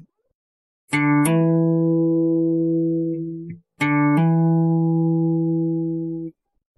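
A guitar hammer-on played twice: an open fifth-string note is plucked, then a finger hammers down to the second fret, raising the pitch a step. Both notes ring clearly and sustain, with no talking.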